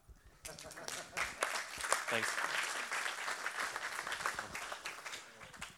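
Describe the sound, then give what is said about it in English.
An audience at a presentation breaks into steady applause, many hands clapping in a dense, continuous patter that holds fairly even for several seconds, with a voice briefly audible beneath it. “You can, you can clap.”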